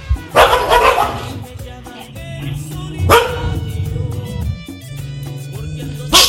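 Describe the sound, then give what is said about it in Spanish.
The speaker's dogs barking loudly, with three strong bursts spaced a few seconds apart and lower growling, whining tones filling the gaps between them. “Pobres de mis perros, pobres.”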